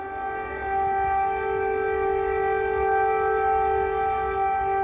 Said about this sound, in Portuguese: Quando se ouve a sirene de alerta, como essa, é preciso correr. É preciso tomar o caminho da escada de emergência do hotel onde nós estamos, por exemplo. Estamos indo em direção ao abrigo antiaéreo.